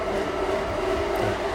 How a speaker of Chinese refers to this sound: 咱们等他这个磨豆子，待会儿咱们接着录。